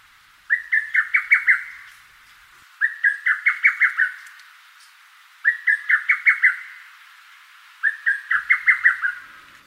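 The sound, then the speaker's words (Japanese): A lesser cuckoo calls four times at steady intervals in Rikugien garden, each call a rapid run of five or six sharp, emphatic notes, clear against a quiet background with no talking. “朝の小鳥今朝は陸義園のホトトギスをお送りしました”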